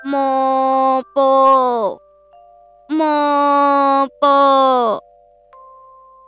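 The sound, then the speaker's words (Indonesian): A voice imitates the call of a bird with a lame leg twice, each a drawn-out two-part cry that bends downward at the end, loud, with faint thin tones lingering between the calls. “Ternyata itu adalah suara burung yang berkaki pincang.”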